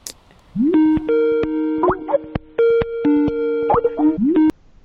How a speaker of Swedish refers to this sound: här har du numret till Monica. Nu ringer vi.